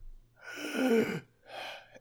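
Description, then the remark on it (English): A person imitates desperate gasping for breath: one long, strained, raspy inhale followed by a shorter breathy gasp, close and fairly loud with no other sounds. “you are awakened to this just. this gasping just of BJ as he has his one hit point left.”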